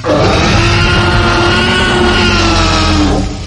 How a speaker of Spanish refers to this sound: Sabemos cómo suena el rugido de un T-Rex